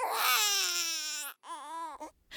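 A baby wails loudly in one long, strained cry, pauses for a breath, then lets out a second shorter cry with a gasping catch at the end.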